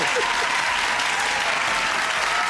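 A loud, steady burst of applause played as a sound effect: dense crowd clapping that fills the whole stretch at an even level, with no one speaking over it.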